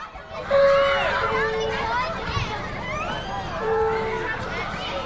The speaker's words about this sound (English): The children are doing art and philosophy in the classroom.